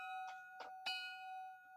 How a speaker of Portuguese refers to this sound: então toca o sino, toca o sino, toca o sino